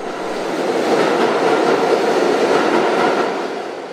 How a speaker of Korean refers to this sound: 17년 만에 다시 열차가 들어오게 된 세계 무역센터 지하철역. 다시는 열차가 멈추는 일이 없기를 뉴욕 시민들은 간절히 바라고 있습니다.